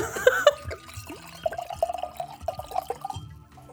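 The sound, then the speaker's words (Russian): Liquid is poured into a glass for a few seconds, a gurgling trickle whose tone rises steadily as the glass fills, with a brief clink and rustle at the start. “Да, еще один праздник. Наливай.”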